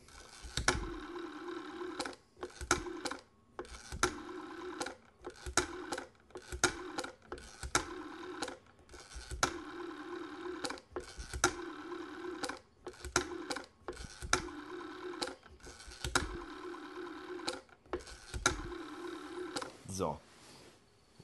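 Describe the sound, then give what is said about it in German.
An old rotary telephone, about 50 years old, being dialed to call an iPhone: a run of whirring, ratcheting spins as the dial winds and clicks back, digit after digit with short pauses between, moderately loud and otherwise alone. The number starts with a zero. “Und äh, äh, findige und geschickte Hörer unter euch können jetzt vielleicht anhand des Wählgeräusches erkennen, welche Nummer ich eingebe.”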